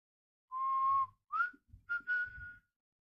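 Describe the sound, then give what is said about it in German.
A lone person whistles three eerie phrases: a long steady note, a short upward slide, then another held tone, clear with no talking. “Doch bis heute ist nicht bekannt, wer das Phantom war, das gepfiffen hat und so eine Frau in den Wahnsinn getrieben hatte.”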